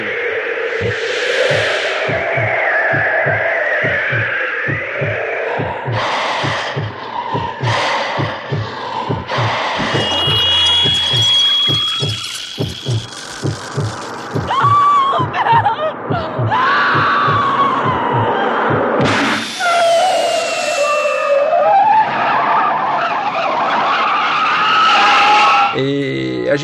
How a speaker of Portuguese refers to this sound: esse o tema de abertura que a gente ouve quando aparece os créditos do filme é uma colagem, né, feita pelo Paul Hirsch de sons